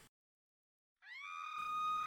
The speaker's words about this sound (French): Un hurlement déchirant.